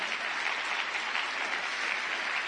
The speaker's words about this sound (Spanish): Claro que sí, muchachos. Fuerte ese aplauso para ustedes.